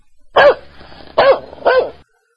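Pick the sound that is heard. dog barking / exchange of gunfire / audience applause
dog barking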